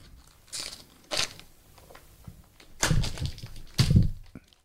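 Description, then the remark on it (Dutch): Aged cheese being chopped: about four irregular knife strikes, each a crisp crunchy crack, the last two landing with a heavier, duller thunk on the board. No one speaks. “je gaat hakken.”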